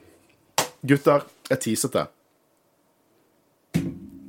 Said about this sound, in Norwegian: Det var lyden av en Death Trooper og en hånd som traff den.